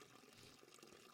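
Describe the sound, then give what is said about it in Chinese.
A steady stream of water, carried in a large leaf, pours and splashes onto the ground beside a small white flower for about a second, a broad, even hiss with a soft gurgling texture and no voices. “菲菲难过的走到河边，咬着大叶子装水回来浇灌在小白花的身边，想让小白花回到原本生意盎然的样子，但是一点用都没有。”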